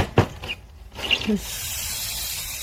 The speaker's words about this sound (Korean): 물 주는 거 아닌가요? 물소리? 네, 오케이. 어, ASMR 같아요.